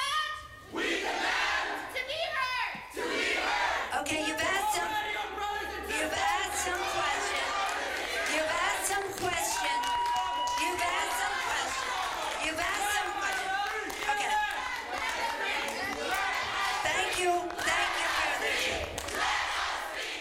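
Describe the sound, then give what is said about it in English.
A loud crowd of DACA protesters chants and shouts together nonstop, interrupting a town hall meeting in San Francisco and calling for legal status for all immigrants; many people yell in unison, with the noise staying dense and intense from start to finish. “was interrupted by DACA protesters during a town hall meeting in San Francisco”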